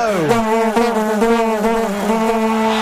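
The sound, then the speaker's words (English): Vuvuzela horns blare in a loud, unbroken drone, several overlapping at one buzzy, mid-low pitch that wavers slightly for about three seconds, with no voices. “Now that's what I call Vuvuzelas.”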